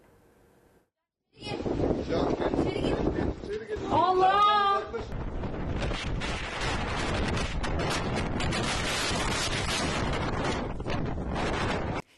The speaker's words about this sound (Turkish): İzmir'in Dikili ilçesinde hortum çıktı. Denizin üstünde başlayıp sahile ulaşan hortum sırasında tatilciler büyük korku yaşadılar.